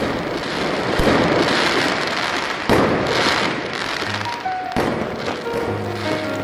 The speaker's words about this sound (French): Une pluie de mortiers d'artifice.